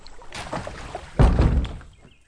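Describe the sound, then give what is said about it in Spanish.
Gentle lake water sloshing on a sunny day, then a single loud, hollow thud as an empty boat knocks into another boat's hull, followed by a brief rumbling rattle that fades quickly. “De repente, un fuerte golpe sacudió su embarcación.”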